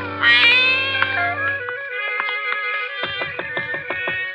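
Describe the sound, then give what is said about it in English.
A gray Persian cat, following people down the path to the front door of a ranch-type home, meows loudly in a long, drawn-out cry, followed by a string of shorter, choppy mewing calls in quick succession. “A gray Persian cat followed us.”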